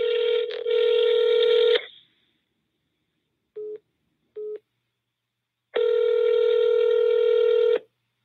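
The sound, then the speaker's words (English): A phone call rings out unanswered: a steady electronic ring tone sounds in two long bursts, separated by a pause with two short beeps, and no one picks up. “Hmm, he's not answering.”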